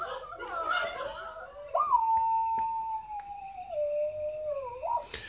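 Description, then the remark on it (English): A person lets out a long, wavering howl in imitation of a dog, one sustained tone that slowly falls and then rises, preceded by a burst of laughter and voices. “making dog noises.”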